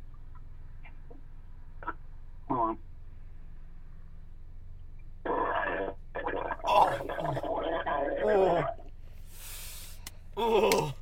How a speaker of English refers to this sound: It's a water water burp. Yeah, that's. water burp.